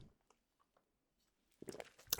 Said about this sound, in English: Um, but this whole thing, I'm going to take a sip of water.